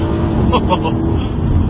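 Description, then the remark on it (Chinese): An AMG C63 engine rumbles deeply and steadily, with a few quick rising rev blips in quick succession as it downshifts under braking in manual mode, the engine automatically blipping the throttle with each lower gear, loud throughout with a low, growling tone. “制动降档，嗯啊，会有这个随着这个档位的降低，它发动机会有自动的补油动作啊，声浪。”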